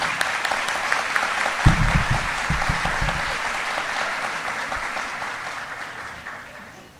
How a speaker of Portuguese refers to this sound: Gostaria mesmo de ter muitas mãos para retribuir o aplauso de vocês com muita alegria, viu?